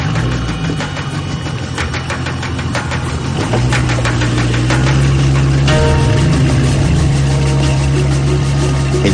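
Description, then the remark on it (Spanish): A motorboat engine runs loudly and steadily as the boat leaves a dock on a canal under a grey, stormy sky, its low throbbing hum rising in pitch partway through as the boat picks up speed, with no voices present. “cielo está muy gris, amenazando tormenta, y Elrod mira el barco salir del embarcadero tomando velocidad.”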